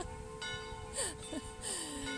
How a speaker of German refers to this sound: Und ich muss auch deswegen jetzt den Podcast nicht aufhören und wieder von vorne anfangen, sondern lasse die Glocken da jetzt einfach im Hintergrund noch ein bisschen bimmeln.